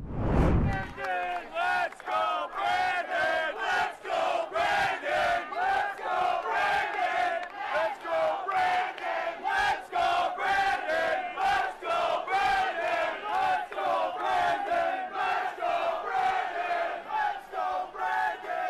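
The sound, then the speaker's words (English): A large crowd of New York City municipal employees, marching across the Brooklyn Bridge against COVID vaccine mandates, chants "Let's Go Brandon" in unison, loud, the same short phrase repeating steadily with many voices shouting together. “New York City's municipal employees marched across the Brooklyn Bridge against the COVID mandates.”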